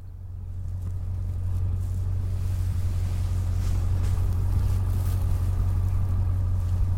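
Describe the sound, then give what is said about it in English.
A flatbed truck loaded with bales of hay drives in a wide arc around a bison pen, its engine rumbling steadily with a deep, continuous motor drone and faint rattling at low speed, with no one talking. “I spend the later part of the day on a flatbed truck”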